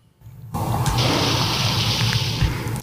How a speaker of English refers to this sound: My sweater guy counted for and drum roll. oh, don't we have that on recorder? We might. We have applause.